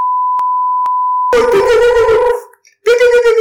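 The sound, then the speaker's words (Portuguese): A steady, high-pitched censor bleep holds for just over a second, broken by two faint clicks, before a voice comes in loudly, pauses briefly, and resumes. “Eu vou meter bip.”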